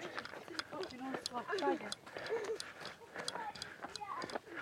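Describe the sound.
Quick, steady footfalls of someone running in place during a 15-second running interval of a workout, thudding in an even rhythm while a person keeps talking over them.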